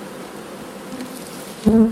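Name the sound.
honeybees buzzing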